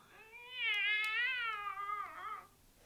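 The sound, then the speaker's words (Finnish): A single long, wavering cat meow, drawn out for about two seconds with a rising and falling pitch, heard clearly on its own with a slightly thin, phone-like quality. “Säkö siellä oletkin? Kippura häntä kuultu, oma kisu.”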